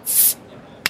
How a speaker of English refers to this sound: pop a bottle.